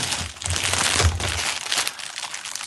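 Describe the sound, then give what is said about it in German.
Continuous crinkling and rustling of the plastic bag a year-old farmhouse loaf was sold in, as the bread is picked up and handled at a desk, with irregular crackles and crunches, fairly loud and steady over a few seconds, no talking. “Ich habe es hier in, in, der Plastiktüte, wie es verkauft wurde.”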